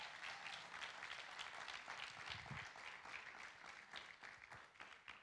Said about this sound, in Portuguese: Quem pode aplaudir Jesus nessa manhã?